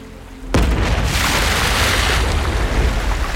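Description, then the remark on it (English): After a brief quiet moment, a sudden deep boom erupts into a loud, sustained roar as a gigantic gray balloon on a string bursts up out of a gray sea, powerful with a rushing, churning tail. “We were only a few minutes from the staircase when something massive erupted from the desolate waters.”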